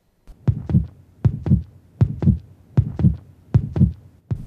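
A steady heartbeat thumps in clear paired beats, lub-dub, repeating about once a second with deep low-frequency thuds and no voices.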